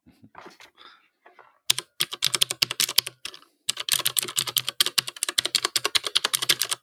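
Rapid, crisp clicking of a mechanical keyboard with blue switches, sharp clacky keystrokes in dense bursts, after a few quieter taps at the start.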